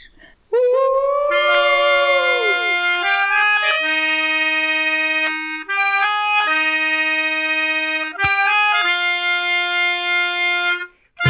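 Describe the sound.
A person howls like a dog in one long, loud, sustained cry, starting with a rising glide and then stepping between lower and higher held pitches, with brief dips, and no talking.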